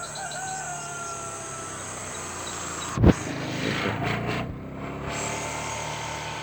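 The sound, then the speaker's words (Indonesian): A motorcycle goes by, its steady engine drone rising slightly in the middle before easing off, with a brief sharp knock partway through. No one speaks. “sorry ada iklan tunggu iklan motor lewat”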